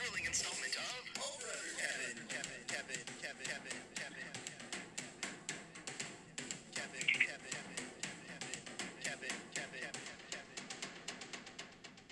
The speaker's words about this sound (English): I swear to God, you spent all this time making one goddamn song to be played as a sound cue.